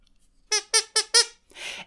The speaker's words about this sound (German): Ähm, ich habe aus meinem Tabuspiel die Quietsche, die Pinke, die ihr vielleicht kennt, äh, rausgeholt und würde jetzt einfach immer, äh, wenn es besonders eklig wird und ich es vorher weiß, einfach kurz ein Signal geben.